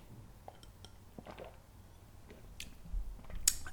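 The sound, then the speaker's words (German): Quiet sounds of someone taking a sip of water: a soft clink of a glass, faint wet mouth noises and a gulp, with no talking. “Ähm, voll, jetzt muss ich einen Schluck von meinem Wasser nehmen.”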